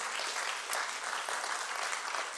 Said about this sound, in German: Und lass uns mal einen großen Applaus geben, den Leitern hier und dem Team, die jede Woche